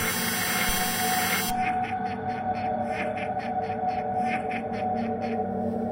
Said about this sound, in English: When I dropped it into the handhole, though, the game buzzed, long and hard enough to shake its way across the bed.